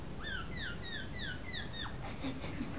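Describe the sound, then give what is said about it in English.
A voice imitates seagull calls: about six quick, squealing downward cries in a steady rhythm, over a constant hiss of background noise, then trailing off into faint murmurs. “There's seagulls.”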